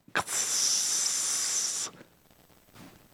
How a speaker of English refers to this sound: It's like when you it's like when you drop that basket of fries in the oil for the first time of the day and you get that sizzle crackle.